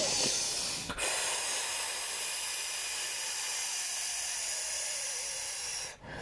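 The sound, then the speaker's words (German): A person demonstrates how breathing can sound when labor contractions become stronger: a brief breath, then one long, forceful, hissing exhale lasting about five seconds, loud and steady, ending with a quick catch of breath. “Das kann aber auch intensiver klingen, wenn die Wehen dich stärker beanspruchen.”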